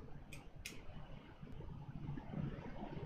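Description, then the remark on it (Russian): Wind blowing outdoors from the direction of Kharkiv as a steady low rumble with gently swelling gusts, with two brief faint clicks near the start and no voices. “Харьков там, а ветер дует оттуда, судя по звукам.”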